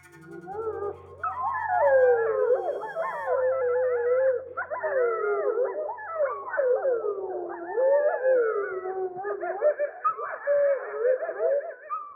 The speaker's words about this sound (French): Ce sont des hurlements en fait de loups qui ont été provoqués par playback, c'est-à-dire qu'on va diffuser des enregistrements en pleine nature sur des sites où ils sont supposés être présents et on va essayer en fait de leur provoquer une réponse.